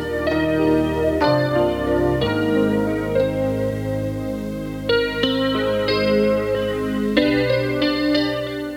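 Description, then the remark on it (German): A short radio station intro jingle from November 1985, of loud, effects-heavy synthesizer chords, changing in bold steps every second or two across the whole stretch, with no voices. “Zuerst das Intro von Eldoradio äh, bei Hör 1.”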